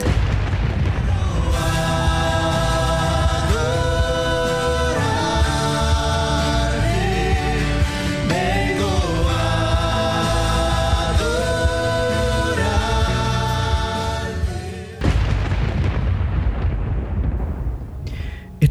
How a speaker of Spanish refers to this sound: Mire, ahí eh, terminamos esta parte anterior escuchando el sonido del sol. Mm. Realmente, y bueno, y de todos estos planetas que ya habíamos nombrado.